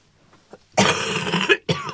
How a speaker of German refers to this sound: Da, da muss ich gleich schon mal kurz. Da machen Huster, der muss weg.